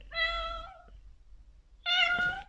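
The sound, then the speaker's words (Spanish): A female cat meows twice, each call a drawn-out harmonic cry with a short pause between them, standing out clearly over a low background rumble. “Estoy peleando con la gata mientras hago esto.”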